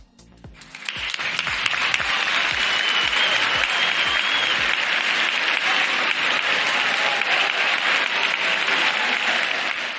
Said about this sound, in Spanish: con el aplauso de los bejaranos y bejaranas a los familiares de Charo que estaban presentes en ese momento y que se llevaban ese cariño de sus eh, paisanos.